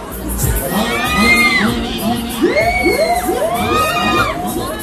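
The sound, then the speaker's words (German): A busy outdoor crowd at the Brarup Markt, the largest rural fair in Schleswig-Holstein, Germany, with many voices, children shouting and squealing in high rising and falling calls over a steady dense hubbub, lively throughout. “Der geübte Hörer wird es erkannt haben, es handelt sich um einen Jahrmarkt.”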